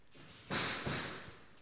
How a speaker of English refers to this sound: I say I live in the middle of nowhere, but apparently somebody's trying to knock down a wall right now.